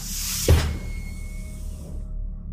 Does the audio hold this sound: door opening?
yes